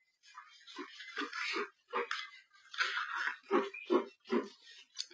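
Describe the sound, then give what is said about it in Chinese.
A dog chews and gnaws on a bone, making a run of wet, crunchy bites and soft thuds in an uneven rhythm, with no talking. “狗最喜欢吃的食物就是骨头，瞧它吃的多香呀！”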